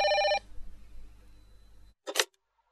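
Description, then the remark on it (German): A short, loud electronic telephone ring cuts off almost at once, followed by a low background hum and a quick, sharp clacking burst near the end. No one speaks. “Nur das Telefonklingeln verhinderte ihr vorzeitiges Einnicken im Sessel.”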